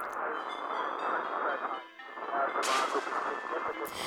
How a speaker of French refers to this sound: Je fais tourner le bouton, je tâtonne. Et là, ça marche. J'entends des grésillements, des voix lointaines, plein de langues mélangées, des bouts de conversation agités.